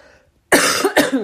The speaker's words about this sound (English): Sorry, I have a cough right now.